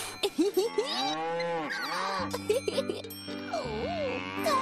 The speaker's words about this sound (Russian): И потому уже через час, а может через два, он отправился на поиски новых приключений и скоро наткнулся у опушки леса на стадо божественно красивых коров.